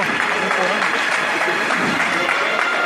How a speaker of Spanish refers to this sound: El último destello de la claridad de este Viernes Santo va a rozar la cara del Señor, que ahora sí, este aplauso unánime en toda la plaza marca que aquí se acaba su estación de penitencia.